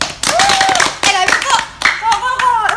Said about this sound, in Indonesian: terima kasih nih buat teman-teman yang udah ngisi uh, buat episode kali ini uh, tepuk tangan dulu lah